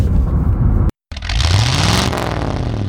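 A 2021 Jaguar F-Type R sports car engine revs loudly, its throaty pitch climbing and then easing back, with a brief cut of silence near the start and no voices.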